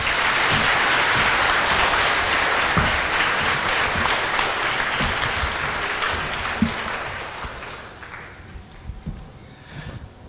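Sustained audience applause welcoming Echo of Moscow editor-in-chief Alexei Venediktov and political scientist Ekaterina Schulman onto the stage, a dense wash of many hands clapping that stays loud for several seconds and then gradually thins out and fades toward the end.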